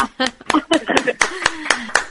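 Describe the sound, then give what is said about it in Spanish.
Applause in a steady, even rhythm: about eight sharp, loud claps, roughly four per second, with a voice sounding underneath throughout. “Hay un aplauso, un aplauso grande, grande de teatro.”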